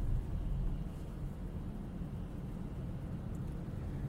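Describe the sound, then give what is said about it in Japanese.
A steady low rumble of road noise from inside a car driving for work on a road with two lanes each way and visible asphalt, outside temperature minus 1 °C, constant and fairly loud throughout, with no talking and no distinct events. “仕事の移動でのドライブ中に収録したドライブ雑談です”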